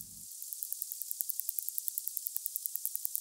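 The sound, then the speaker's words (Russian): Narwhal echolocation clicks made while hunting fish: a rapid, steady train of sharp, bright ticks, roughly eight per second, over a faint hiss, with no voices. “Вы слушаете звуки, которые нарвал издает при охоте на рыб.”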